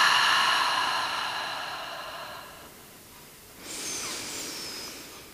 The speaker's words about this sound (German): Gut, bevor es losgeht, ähm, einmal tief in deine Fußsohlen einatmen durch die Nase. Und durch den Mund über einen Ah aus den Fußsäulen, Wurzeln in die Erde atmen.